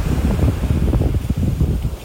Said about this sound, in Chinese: 现在越来越靠近海了，我走过来，这是沙滩，礫石已经没有了，是沙滩。它等一下浪打上来，搞不好我的脚鞋子都湿掉了。听听海的声音。